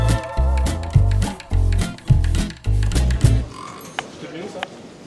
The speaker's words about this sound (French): La consigne de départ était de cuisiner un agneau de Lozère IGP pour 6 personnes et un dessert à base de châtaigne AOP. Active était tout à l'heure dans les cuisines. Écoutez, ambiance.